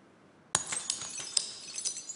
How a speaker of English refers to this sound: And breaking of glass can indicate the end of a relationship or a friendship.